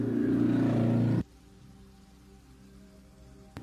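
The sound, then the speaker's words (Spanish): A loud motorcycle passes by outside, its engine roaring for about a second, a harsh low rumble that cuts off abruptly, leaving only a faint background hum. “Por ahí pasó una moto de las que avanzan menos de lo que suenan.”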